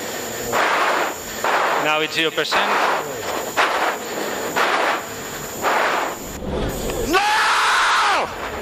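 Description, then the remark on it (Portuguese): A man breathes hard in loud, rasping gasps, breaking into a strained cry midway and ending with a long, forceful scream. “Acho que pra mim a respiração forte foi o que mais incomodou do que o grito.”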